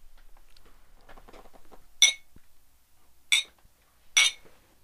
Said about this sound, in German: Und ihr habt gehört, wir haben dreimal angestoßen, nämlich auch schon mit unserem Gast.